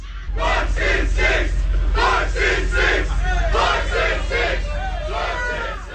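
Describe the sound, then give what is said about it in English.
Fans at a Chick-fil-A drive-through cheer loudly for NBA player Giannis Antetokounmpo of the Milwaukee Bucks. Their shouts fall into a steady, repeated chant of rhythmic bursts over a constant low rumble, sustained throughout without pause. “The Greek freak from the Milwaukee Bucks, having just won the MVP in the uh, the NBA championship, driving through a Chick fil A, and fans recognize him and start cheering.”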